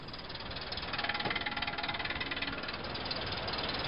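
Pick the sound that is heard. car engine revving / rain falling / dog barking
car engine revving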